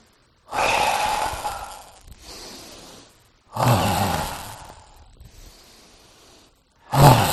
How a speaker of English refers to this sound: So we'll begin breathing in.